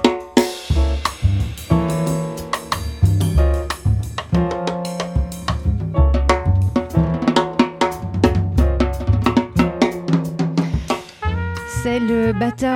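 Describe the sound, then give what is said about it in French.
A full-band jazz recording plays on its own on a French radio jazz show, as a tribute, with a walking low bass line, crisp percussive accents and bright horn or piano chords moving at a lively, steady pace, loud. “Ce soir, un hommage franco-américain va être rendu à celui dont on entend tout de suite la musique.”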